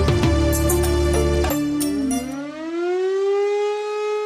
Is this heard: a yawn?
no